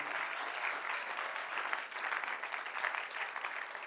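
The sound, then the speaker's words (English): An audience of Christians claps for Jesus, steadily and densely. A continuous wash of many hands with no voices standing out holds a fairly even loudness, with small swells throughout. “The Christians are clapping for Jesus.”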